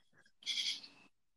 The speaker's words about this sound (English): Uh, it's probably like a cricket or a bird. Is it loud? Okay.